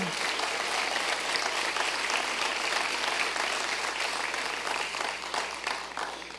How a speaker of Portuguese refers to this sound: Pode dar aplauso ao Senhor.